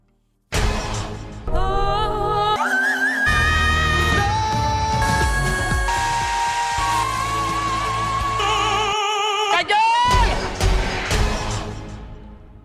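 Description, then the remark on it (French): A loud, full-band song by a Spanish female singer, her sustained, wavering melody over dense instrumentation. It starts after a brief pause and plays continuously throughout. “C'est le grand retour cette fois euh, d'une chanteuse espagnole qu'on aime énormément. On écoute.”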